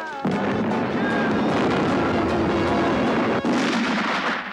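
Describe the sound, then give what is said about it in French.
A homemade powder charge goes off with a sudden, very loud blast, then a dense roaring rumble that continues for several seconds, briefly dipping once before surging again. “sûr que t'as pas mis trop de poudre Parce est-ce que pas, il y en a plutôt moins que dans un pétard qui est en juillet.”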